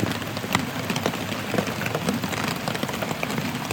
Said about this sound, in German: Und es regnet immer noch. Regnet und regnet.